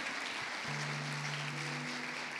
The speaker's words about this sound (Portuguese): Amém, queridos? Amém? Você pode aí celebrar a Deus com as suas palmas, amém?